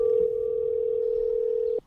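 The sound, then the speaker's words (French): A telephone ringback tone on an outgoing call to someone in Helsinki, Finland: one steady, clear electronic beep held for nearly two seconds, then cut off abruptly, with no voices. “J'ai pris mon téléphone pour appeler”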